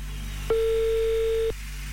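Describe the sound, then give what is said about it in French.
A single one-second burst of a steady, mid-pitched telephone ringback tone on an outgoing call to a listener in Cheseaux-sur-Lausanne, heard clearly over a quiet line with a faint low hum, no voices. “rejoindre Jérôme qui j'espère va répondre au téléphone”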